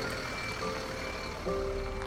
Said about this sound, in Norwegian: Bussene triller inn på plassen foran Gjesdal gjestgiveri.